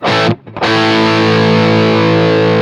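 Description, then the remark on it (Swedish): A loud, heavily distorted electric guitar, played through an amp pedal on a band's setting with JBL, rings out with a fizzy, buzzing top end, a brief dip near the start, then a sustained chord droning on alone. “Ja, och man hör direkt det här fräset.”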